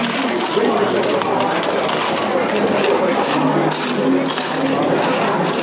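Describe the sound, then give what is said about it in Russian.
Foreign coins clink and jingle continuously as they are sorted, a dense, bright metallic rattle with steady small clicks throughout, and faint voices murmur underneath. The coins include ones from the Philippines, United Arab Emirates, China, Hong Kong, Macau, Japan and Bahrain, with no Russian coins among them. “Мне кажется, у них не- здесь нет русских монет,”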